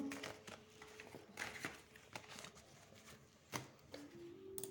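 A deck of cards being shuffled: soft papery riffling broken by irregular sharp flicks and taps, fairly quiet, with no one speaking.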